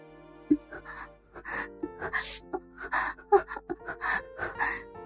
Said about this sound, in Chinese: 我倒吸了一口凉气